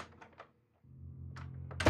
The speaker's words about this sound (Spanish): La puerta se abrió y se cerró.